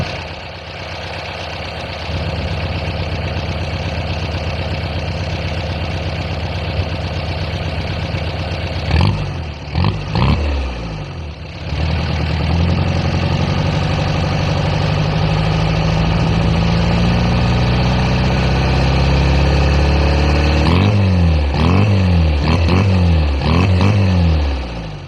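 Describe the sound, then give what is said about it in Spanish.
A Rastrojero pickup truck engine idles with a steady, rumbling drone, broken by a few short revs around the middle and a run of rhythmic, pulsing revs near the end. No one speaks. “suena mi rastrojero.”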